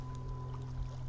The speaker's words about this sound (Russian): Какой-то маленький, маленький частный самолет.